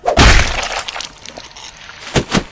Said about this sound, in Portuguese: A cabeça dela é destruída quando o seu martelo afunda na cara dela. Tipo, você escuta o do quebrar dos ossos.